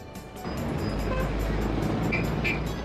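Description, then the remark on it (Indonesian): A Satpol (public order officers) car rolls in, its low engine rumble and road noise swelling suddenly after a brief quiet start, then holding steady and fairly loud. No siren or voices are present. “Ada mobil satpol, Bu.”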